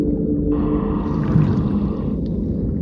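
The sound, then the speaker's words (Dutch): A blue whale song: a deep, sustained moaning drone that swells briefly in the middle, loud and continuous with an underwater, resonant quality and no voices, made by a blue whale diving hundreds of meters deep to send its call through the deep sea. “Het machtige geluid van een zingende blauwe vinvis”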